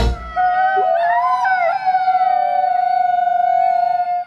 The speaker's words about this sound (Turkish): Dinlediğiniz sesler merkezi New York'ta olan Kurt Koruma Merkezi'nin YouTube kanalından. Bu ürpertici ulumalar aslında kurtların dili. Onlar uluyarak iletişim kuruyorlar.